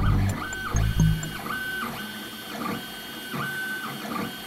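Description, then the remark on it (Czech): Several Prusa 3D printers in a print farm hum and whir together while printing, their stepper motors whining in repeating rising and falling sweeps, with a brief low mechanical thump near the start and steady background machine noise. “Něco vzniká, něco se rodí, něco se tiskne. A tohle je farma. Farma tiskáren.”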